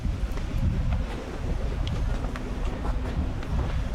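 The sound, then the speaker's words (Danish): Steady outdoor ambience at a harbor on the Costa del Sol beside a very large three-deck yacht, with gusty wind rumbling against the microphone and a low, continuous drone like boats, plus faint scattered clicks and knocks in the background. “Det er de muligheder, vi har for at kunne øh, komme ind på en båd her på øh, havnen ved, ved Solkysten.”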